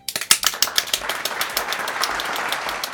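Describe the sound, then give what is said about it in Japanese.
An applause sound effect for listener 22Face starts with a few distinct sharp claps, then quickly thickens into a steady, dense patter of many hands clapping at once, moderately loud. “こんな状況でも頑張ってる 22Face さんに拍手を送りたいと思います。ダメダメ、こんな私の寂しい拍手ではダメ私とスタッフとそして効果音も入れて”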